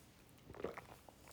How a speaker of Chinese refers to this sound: 这是我录音的第二次哈，因为我的那个喉咙刚才非常痒，现在也还是哈，所以我准备了一杯水在旁边，所以等一下可能会听到我在喝水。